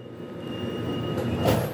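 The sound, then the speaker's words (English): A steady low rumble of a commuter train rolling into a station, with a faint high whine and a brief brighter burst of screeching near the end, no voices. “Hicks gets the next train and walks through the Union Station bus concourse by about 8 a.m.”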